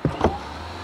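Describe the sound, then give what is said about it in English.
A bus door swings shut with two quick mechanical thumps, then a low, steady engine hum carries on underneath. No one speaks. “Stand back, please. I'm closing the door.”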